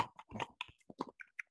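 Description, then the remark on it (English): A dog chewing, a quick irregular run of soft, wet crunching and smacking bites that trail off into a few sharper clicks, fairly quiet and with no one talking. “if you hear anything in the background, it's my dog Jet.”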